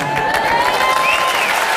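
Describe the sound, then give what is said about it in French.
A crowd applauds with dense, steady clapping and some cheering, holding a constant loud level throughout the short burst, with a thin whistle-like tone running underneath. “Non, non, non, applaudis pas.”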